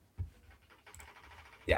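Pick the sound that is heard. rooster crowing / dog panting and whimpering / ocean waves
dog panting and whimpering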